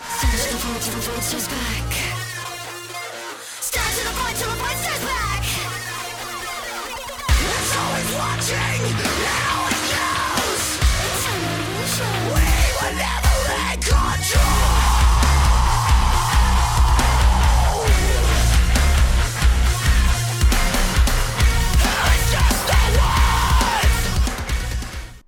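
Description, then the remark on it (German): A loud, dense post-hardcore track, a drop from a new single, with heavy distorted guitars, pounding drums and screamed vocals, building through a short intro before crashing into a thick, relentless drop that runs to the end. “Was wir hier gehört haben, war ein Drop aus der neuen Single von … zusammen mit ….”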